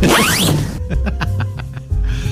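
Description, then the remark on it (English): A tent zipper is pulled with a quick rasping sweep, then a run of about six evenly spaced ticking clicks as the teeth catch. It is fairly loud, with a low hum underneath. “Is that the tent zip?”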